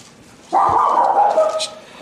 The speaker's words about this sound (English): Casey, shut that damn dog up.